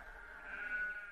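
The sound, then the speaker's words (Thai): A single sheep, one of a flock brought to be watered in Midian, bleats in a wavering, nasal cry lasting about a second, rising slightly in loudness toward the end, with a faint low rumble underneath and no talking. “เช้าเนี้ย เรามาเพื่อจะให้น้ำแกะของพ่อเรา”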